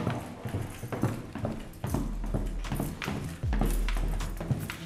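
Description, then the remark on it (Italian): Hard-soled footsteps descend a flight of stairs in a house in a steady, brisk rhythm, each step a sharp knock, over a low background rumble, with no one speaking. “E scendendo le scale di casa mi è venuto in mente quel simbolo misterioso sulla spalla dell'insegnante di danza.”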